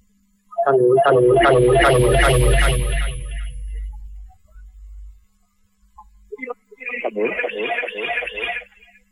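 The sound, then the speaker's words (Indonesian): A muffled, tinny voice of a caller on a phone-in telephone line cuts out into near silence for a couple of seconds, then a thin, band-limited voice returns with a low mains hum underneath. “Terputus.”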